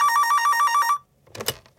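A telephone bell rings in a rapid, trilling burst for about a second, loud, then stops abruptly, followed by a brief soft clatter like a receiver being picked up.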